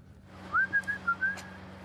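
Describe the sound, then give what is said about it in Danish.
A man whistles a short tune of about five clear, gliding notes at moderate volume, with a steady low hum in the background and no talking. “Og fløjter han igen.”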